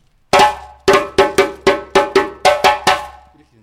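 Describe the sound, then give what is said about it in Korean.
A metallic bell-like percussion instrument rings out in a quick rhythmic pattern of about ten sharp strikes, loud, with short ringing decays and no voices, playing a West African opening rhythm. “시작하는 리듬이에요. 그 들어보세요. 네. 이렇게 연주해요.”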